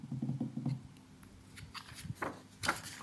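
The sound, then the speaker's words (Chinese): Soft pattering footsteps of a boy approaching from afar at night toward a lit phone booth, a handful of light, irregular taps that grow slightly louder toward the end, following a brief low murmuring tone at the start. “灯亮了，远方就传出来了吧嗒吧嗒的脚步声。”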